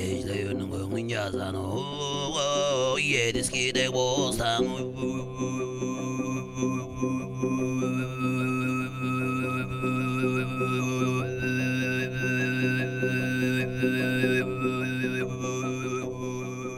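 Tuvan throat singing (khoomei) by a Tuva musician: one person holds a steady low, buzzing drone while a piercing whistle-like overtone melody glides and hops above it, both coming from the same mouth at the same time, loud and sustained throughout.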